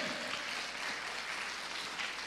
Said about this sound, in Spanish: Dele palmas al Señor, hermano, con fuerza. Amén.